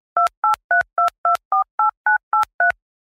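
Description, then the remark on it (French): A phone number being dialed to call film journalist Fabrice Leclerc: ten quick touch-tone keypad beeps in a steady, even rhythm, each a short clear dual-pitched tone with a click, loud, no voices. “Donc, il est temps de prendre le téléphone et d'appeler Fabrice Leclerc, ex-rédacteur en chef de Studio Ciné Live et journaliste cinéma pour Paris Match.”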